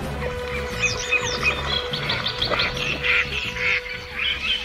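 Many birds chirp and call over a steady low hum, with scattered squawks and bright tweets overlapping throughout: a busy flock of waterbirds in the marshland wetland of Doñana National Park, Spain.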